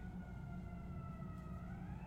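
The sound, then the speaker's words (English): Emergency sirens wail steadily outside in Chicago, their sustained tones gliding slightly in pitch over a low rumble of traffic, without any talking. “as the uh, were greeted by the sirens of Chicago,”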